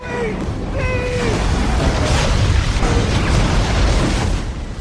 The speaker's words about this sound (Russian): Наблюдавшие с берега, увидев взрыв, перепугаются, потому что в первые секунды этот самый взрыв на платформе похож на ядерный. Вверх взмывает грибовидное облако, а звук слышен по всему побережью.